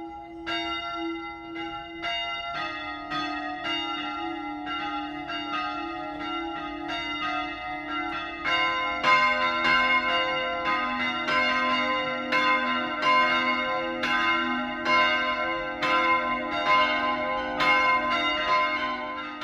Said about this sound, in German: Es ist 12 Uhr. Das Mittagsläuten kommt heute von der Wieskirche bei Steingaden.